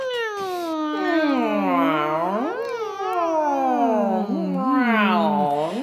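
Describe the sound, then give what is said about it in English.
A person's voice imitates a cat, producing a continuous series of sliding, wavering meows and mewling sounds, loud, with pitch swooping up and down for several seconds. “Hmm, and maybe making some cat noises.”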